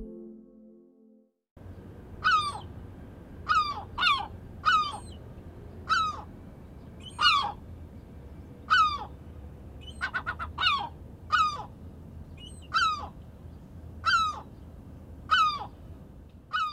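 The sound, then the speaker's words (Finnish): A herring gull gives a long series of loud, clear calls at a steady pace, each a sharp, nasal cry repeated about a dozen times, with a short rapid burst partway through over a low background rumble. “Harmaalokki”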